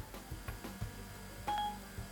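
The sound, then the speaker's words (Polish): A smartphone places an outgoing call with a short run of electronic keypad tones, including one longer steady beep, fairly quiet over faint low background noise. “Dzwonimy.”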